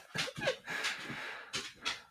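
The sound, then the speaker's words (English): A dog pants in quick, breathy bursts, a rhythmic run of rough exhales with brief pauses between them and no voices over it. “My dog's being um, a bitch.”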